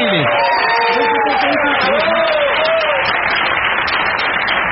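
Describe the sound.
A crowd bursts into loud, steady applause with cheering and shouts over it, voices rising and falling above the dense clapping throughout.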